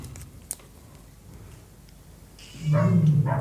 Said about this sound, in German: Das Tier der Woche ist heute der Hund. der Großpudel. Der Großpudelhund.